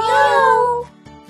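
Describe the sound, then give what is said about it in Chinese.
A kitten gives one long, loud meow with a bright, slightly falling pitch, then fades into quiet with a couple of faint soft knocks. “小趣开心的抱住了小猫咪，喵。”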